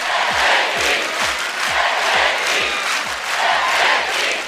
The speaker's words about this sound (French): En l'attendant, le public scande Stéphie, Stéphie